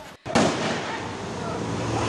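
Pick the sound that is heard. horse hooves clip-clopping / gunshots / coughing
gunshots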